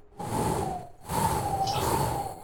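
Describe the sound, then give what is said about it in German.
A howling wind rises in two long gusts, a steady whistling moan over a rushing, broad roar, brief lull between them, fairly loud with no voices. “es kommt dieser Wind wieder auf”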